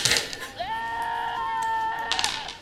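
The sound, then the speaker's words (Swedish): A goat bleats in one long, wavering call lasting about two seconds, heard outdoors, with brief rustling or voices at the start and end. “Hörde ni det? Mm, som en get, get som ropar där ute.”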